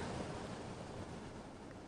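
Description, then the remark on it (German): Constant wind whistles without pause as it grows almost dark, a steady, full rushing roar that holds at an even loudness throughout, with no voices or other sounds. “Dazu das beständige Pfeifen des Windes.”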